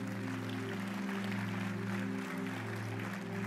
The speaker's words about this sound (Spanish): ¿Le puedes dar un fuerte aplauso a Dios?